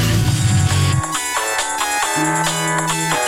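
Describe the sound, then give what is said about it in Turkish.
A loud electronic mobile phone ringtone for an incoming call from a hidden number plays a bright, synthetic melody in stepped notes, ringing continuously with no voices over it. “Allah Allah gizli numara kim acaba? Alo?”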